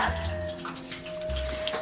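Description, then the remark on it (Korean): Food sizzles in hot frying oil, a steady hiss dotted with small crackles and pops, with a faint low hum running underneath. “아니 이것은 잠깐만 지글지글 지글지글 지글 뜨거운 기름 샤워?”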